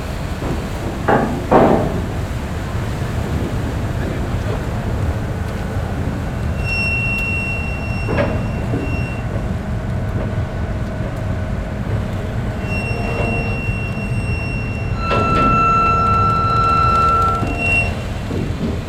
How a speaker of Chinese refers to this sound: 轮船靠岸的声音。